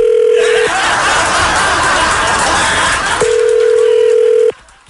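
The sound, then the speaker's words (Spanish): A telephone ringback tone hums as a steady, mid-pitched beep while a call is placed to a mother, gives way to a few seconds of loud, noisy chatter and snickering, then returns for a longer beep before cutting off. “a ver, vamos a marcarle.”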